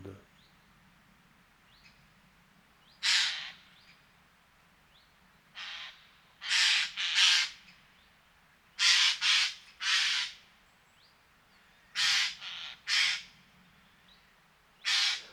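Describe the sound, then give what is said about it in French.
Eurasian jays give harsh, raspy screeches, about ten loud calls in irregular bursts, several coming in quick pairs, with a low steady rumble underneath. “Depuis un certain temps, ça fait même deux mois environ, nous avons euh, pu constater dans nos paysages une invasion de jets des chênes.”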